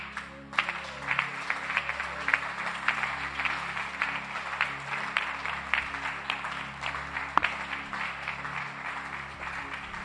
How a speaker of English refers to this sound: When we are clapping, clap. You to clap. Everybody clap.